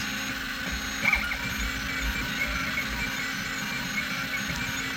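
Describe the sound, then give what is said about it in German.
A 3D printer runs steadily while printing, its motors giving off a constant mechanical hum with faint whining tones and one brief louder clunk early on, with no voices. “Ja, ähm, ich, ich drucke gerade was mit dem 3D-Drucker aus.”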